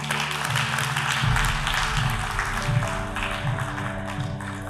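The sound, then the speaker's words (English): A church audience claps steadily for those who have surrendered their lives to Jesus, a dense, continuous wash of many hands across the whole clip, with a low sustained musical hum entering after the first second and continuing underneath. “Can we clap one more time for those people?”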